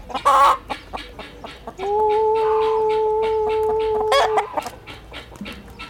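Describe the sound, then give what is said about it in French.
An old rooster gives a few short, scratchy clucks, then lets out a loud, long drawn-out call lasting a couple of seconds before settling back into quieter clucking. “Ça, c'est un vieux coq de, chez moi que j'ai ramené ici.”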